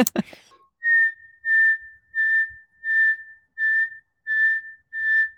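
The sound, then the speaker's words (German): A person whistles an imitation of the nightingale's whistled song phrase: seven steady, repeated high notes in an even rhythm, clear, preceded by a brief throat noise. “Ein, ein sicherer Weg, um die Nachtigall zu erkennen, ist an, anhand ihrer Pfeifstrophe, habe ich gelernt, in dem, in dem Sommer mit dir.”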